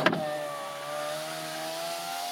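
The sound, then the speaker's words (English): A car's driver-side power window motor hums steadily after a brief click, its whine holding a sustained tone throughout as the glass moves up and closes. Clear, no voices. “Oh, that's is that driver side or is that passenger side? That's driver's side. Is it up or is it down? Have a listen.”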